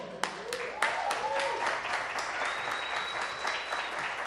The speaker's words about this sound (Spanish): Ahora queremos invitar a alguien especial, a una de nuestras bandas amigas. Alguien que representa el poder del barrio. Vamos a recibir con un fuerte aplauso